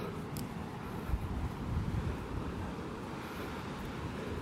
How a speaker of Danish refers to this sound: Og vinden tager til de skærmende og beskyttende klitters ly forsvinder stille og roligt, mens vi bevæger os ned af klitterne mod det brusende hav.